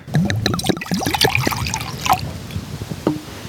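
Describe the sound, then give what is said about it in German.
Red Spätburgunder wine glugs and splashes as it is poured from a small bottle into a tin cup, with a burst of bubbly gurgles that tapers into a few final trickles and drips. No one speaks. “So, dann gießen wir mal was ein.”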